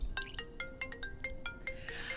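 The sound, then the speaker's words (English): A phone ringtone plays a quick, repeating melody of bright electronic notes, steady and rhythmic, moderately quiet, with no voices over it. “Uh, oh, it's Skip. I have to take this.”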